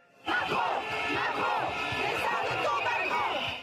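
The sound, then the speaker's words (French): Several thousand striking general practitioners, stethoscopes around their necks, protesting in the streets of Paris: a dense, continuous roar of many voices shouting and chanting together, steady and loud throughout after a sudden start. “Au milieu de la foule, ces médecins généralistes passent leur stéthoscope autour du cou, eux qui se disent étouffés par un système de santé saturé.”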